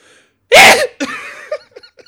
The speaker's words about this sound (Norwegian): du er så søte nys. Takk.